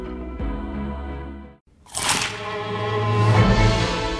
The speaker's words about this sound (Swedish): Upptäck det vackra ljudet av McCrispy Company för endast 89 kronor. En riktigt krispig upplevelse.